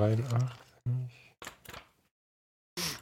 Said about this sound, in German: Mal ein bisschen hier rumblättern.